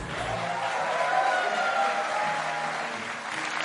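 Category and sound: crowd, audience applause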